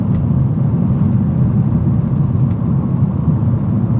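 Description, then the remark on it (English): Steady low car engine rumble and road noise while driving, a constant droning hum filling the low end with no pauses or voices. “I'm doing nothing. Just driving, officer.”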